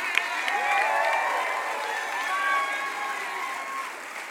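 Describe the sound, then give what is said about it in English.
A church audience at a Wednesday night service applauds and cheers in praise of God, a steady wash of dense clapping with voices shouting and whooping over it, sustained and fairly loud for the whole few seconds. “I wish you'd start shaking off some stuff and giving God a big praise.”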